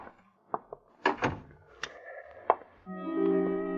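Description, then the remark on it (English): A man swings a door shut: a few light latch clicks, a solid thump, then another sharp click, after which a steady low hum sets in and continues to the end. “After he closed the door, the man with the gun switched on the lights.”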